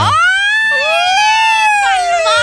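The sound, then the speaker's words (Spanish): A loud siren wail holds a high steady pitch, dips briefly, then rises and slowly falls again across a couple of seconds, with no talking underneath. “sirena!”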